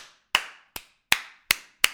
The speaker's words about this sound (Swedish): Applåder.